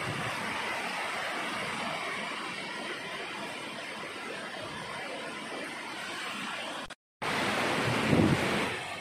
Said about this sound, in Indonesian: jadi buat apa di sini pun udah enak sejuk banget sejuk banget pas lagi hujan terus ditemani deburan air yang bergerak ke bawah mengikuti aliran air sungai